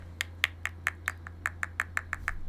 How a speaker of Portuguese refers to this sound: Mas, isso, ó... isso foi o som do tabu quebrando no meu dente.